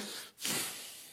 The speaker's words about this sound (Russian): Будьте здоровы. Спасибо.